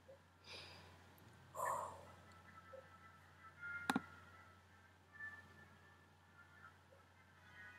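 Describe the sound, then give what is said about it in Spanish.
A single sharp laptop touchpad click stands out near the middle against a quiet background hum, with a few fainter rustles and taps scattered around it. “tu teclado, o sea, cuando apretáis como el pad.”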